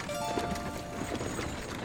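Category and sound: animal, horse hooves clip-clopping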